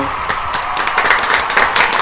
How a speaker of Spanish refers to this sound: Bueno, la verdad, increíble. Un aplauso.